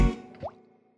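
A water drop falls with a wet plop, followed by a clear rising plink as another drop lands, fairly quiet, then fades into silence. No voices.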